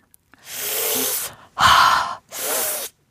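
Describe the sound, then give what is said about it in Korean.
Three breathy hissing gasps, one after another, the middle one sharper and louder, like someone sucking air through their teeth after eating very spicy food. No talking. “하, 이게 진짜 매울 때 한 나오는 거죠.”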